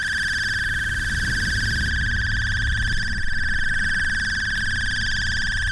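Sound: alarm clock ringing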